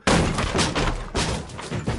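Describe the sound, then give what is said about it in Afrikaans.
A bookshelf in a library topples and crashes down: a loud, sudden crash followed by a rapid burst of heavy thuds and clattering impacts as hundreds of large, heavy books tumble down, lasting about two seconds, with no voices. “Die rak wikkel heen en weer en dan val dit om reg op die inbreker.”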